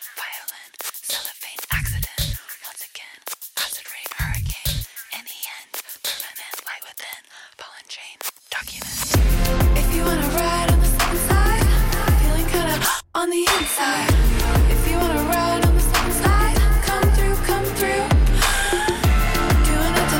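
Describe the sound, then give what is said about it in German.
A hyperpop track opens with breathy, whispered vocals over sparse bass hits, then bursts into a loud, dense electronic mix with heavy bass and bright synths, briefly cutting out once before continuing. “Hier ist mal ein Track von …, der heißt ….”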